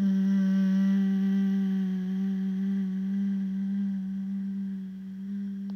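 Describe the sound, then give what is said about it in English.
A single voice holds a steady, low chanted hum, the throat chakra bija mantra syllable "ham", sustained evenly on the breath for several seconds with no other sounds around it. “Next chakra, throat, bija mantra, hum, H A M. Three of those breaths with the sound.”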